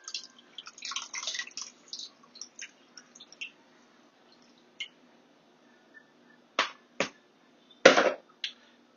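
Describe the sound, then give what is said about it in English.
Buttermilk pours onto raw chicken with wet, squishy gurgles and drips, busy at first, then a few louder sloppy splats. No one speaks. “Now we're going to go ahead and pour our buttermilk over our chicken.”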